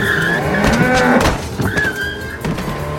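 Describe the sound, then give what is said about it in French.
A speeding car screeches loudly through turns, with sustained high tire squeals over a roaring engine rumble that swells and dips for about three seconds. “Mais non, regardez, tout va bien, je suis à peine à 420 km/h dans les virages.”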